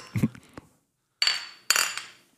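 beer glasses clinking

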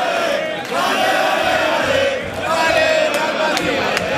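football stadium crowd chanting

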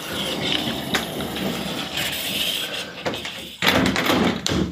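door being closed

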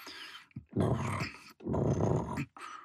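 stomach growling

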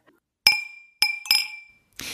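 wine glass clinking

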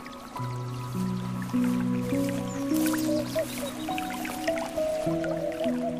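babbling brook water

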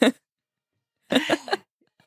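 allergic cough

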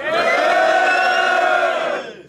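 crowd cheering and shouting

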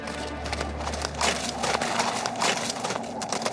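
horses' hooves galloping

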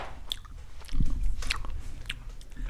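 smacking

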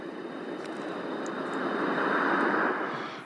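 ocean waves surf

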